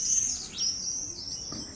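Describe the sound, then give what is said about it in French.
Shrill, high-pitched cries of a flock of birds flying very high in the sky on a midsummer day under a clear blue sky ring out in a rapid series of thin screeching calls, fairly faint overall, with no one talking. “Un jour de plein été, où je m'étais baladé sous un beau ciel bleu, j'entendis des cris stridents, typiques de la saison.”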